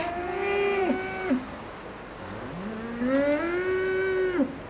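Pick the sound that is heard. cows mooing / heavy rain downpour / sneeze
cows mooing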